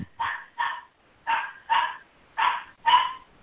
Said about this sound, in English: Uh, wish I could mute my dog.